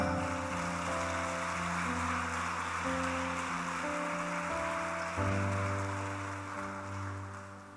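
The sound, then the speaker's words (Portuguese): An audience claps in a dense, steady wash of applause for the Lord in the morning, lasting several seconds, while sustained organ-like chords play underneath and shift partway through. No one speaks. “Um aplauso ao Senhor nessa manhã.”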